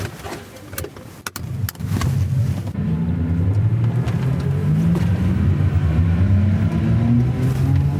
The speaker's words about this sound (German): eine Probefahrt in so einem E-Tuk-Tuk machen